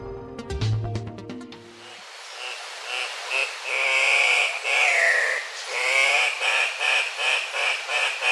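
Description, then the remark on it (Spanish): After a brief burst of music, an Andean cock-of-the-rock gives a run of harsh, nasal, unmelodious squawking calls, loud, repeated in quick succession with short gaps and no talking. “El gallito de roca que estamos escuchando tiene un trino poco melodioso, pero es una de las aves más vistosas que se puede observar en la zona andina de Sudamérica, lo cual lo convirtió paradójicamente en una especie amenazada.”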